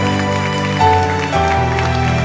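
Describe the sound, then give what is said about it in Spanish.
A Spanish-speaking church audience claps in praise of the Holy Spirit, a dense, continuous patter over sustained musical chords that shift pitch a couple of times, the clapping and music staying loud and steady throughout. “Denle un aplauso a mi Madre Espíritu Santo.”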